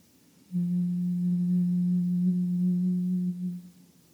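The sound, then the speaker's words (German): A single steady hummed tone, low and even, held for about three seconds after a brief pause, then fading out. No other sounds or speech. “Atme wieder ganz leicht ein und aus, ohne Summen und setz dann irgendwann mit dem Summen wieder ein.”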